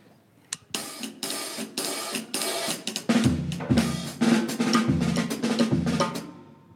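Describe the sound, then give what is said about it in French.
A hi-hat cymbal plays a steady, crisp rhythm of repeated strokes; about halfway through, heavier, deeper drum hits join in and the pattern grows louder and fuller. No one speaks. “Après, il y a le euh, hi-hat ou Charleston qui s'est rajouté.”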